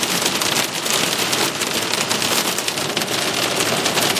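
Steady, dense rain patters on a hard surface while the sun shines, a constant hiss of many tiny drops with no pauses or voices.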